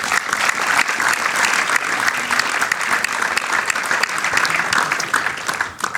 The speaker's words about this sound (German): Applaus